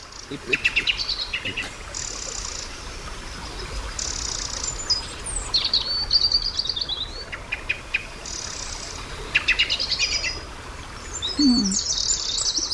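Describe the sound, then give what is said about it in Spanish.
A European robin sings a series of high, thin, warbling phrases with short pauses between them, over a steady background hiss of ambient noise, at dusk around 7 in the evening on the Castilian plateau in Spain. “estaba cantando como si fuéramos el mes de abril un petirrojo.”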